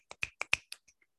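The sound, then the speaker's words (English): A quick, uneven burst of finger snapping given as applause for the character Lexi's play, as at a poetry slam: five or six sharp clicks over about a second, the last ones fading to faint taps, with no talking. “This is the applause for Lexi's uh like we're at approach slam.”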